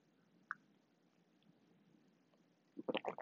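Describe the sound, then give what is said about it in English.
Wet gulping as someone drinks water, a quick cluster of swallows near the end after a small click and a quiet stretch. “Sorry, I was a chunk of water.”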